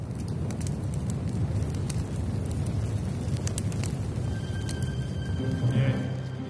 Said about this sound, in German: Tatsächlich steht der Baum innerhalb weniger Sekunden in Flammen.